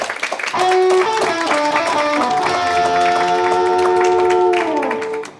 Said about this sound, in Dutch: Geef nog een groot applaus. Dankjewel.